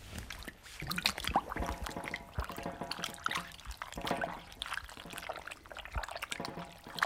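Close, continuous splashing and sloshing of water with irregular drips and trickles, as pieces of parchment are pushed down and soaked; no one speaks.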